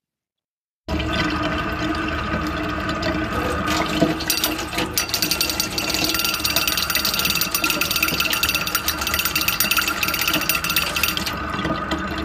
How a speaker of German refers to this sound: Man hört, glaube ich, als erstes den Wasserstrahl. Wasser ne?